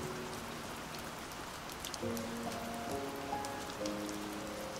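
Light rain falls steadily, a soft even patter and hiss with scattered tiny drop ticks. About halfway through, faint sustained tones begin humming underneath the rain. No one speaks.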